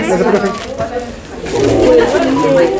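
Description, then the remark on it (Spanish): A person imitates a pigeon's cooing, producing low, throaty, warbling coos that run on continuously for a few seconds at moderate loudness. “¿Me está diciendo paloma?”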